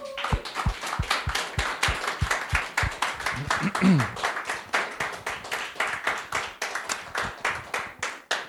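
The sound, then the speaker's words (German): An audience applauds for Jesus at a church service, with a steady burst of clapping, many hands striking in quick, fairly even claps that carry on at a moderate level, with a brief murmur of voices partway through. “Und so gebt mal Jesus nochmal einen Applaus dafür.”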